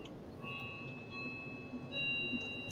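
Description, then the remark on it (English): A faint doorbell chimes twice, each tone ringing out and lingering, over a low background hum with no one talking. “That is the doorbell, yeah.”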